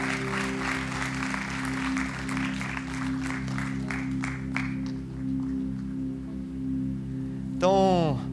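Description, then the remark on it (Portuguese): A church audience applauds the Lord in a dense burst of clapping that thins out and fades after a few seconds. A steady low hum runs underneath, and a short sliding tone falls near the end. “Aplauda ao Senhor, ele é bom.”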